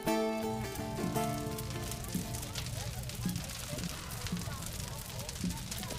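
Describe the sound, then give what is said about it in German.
The Rani people's temple castle at Arkona burning down after its capture by King Waldemar's Danish army: a steady roar of crackling fire with scattered sharp pops and snaps throughout, opening under a held low tone that fades away after the first second or so. “Schweren Herzens sahen die Ranen ihre Burg niederbrennen.”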